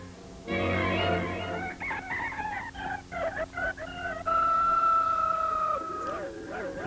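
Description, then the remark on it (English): A rooster crows loudly in the morning with strained, wavering calls, broken by a few choppy clucks before one long sustained crow trails off into softer squawks. “Yeah, the, the rooster didn't react too well to that.”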